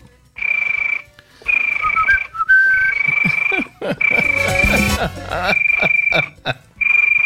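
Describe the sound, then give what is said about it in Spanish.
A voice imitates a cricket, producing a shrill, steady high-pitched trill in about five sustained bursts separated by short pauses, with some brief vocal noise partway through. “el, el grillo, soy muy bueno haciendo el grillo.”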